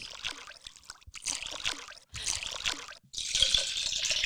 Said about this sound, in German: Es klingt wie eine WC-Spüle. Ja. Da, so irgendwie macht es.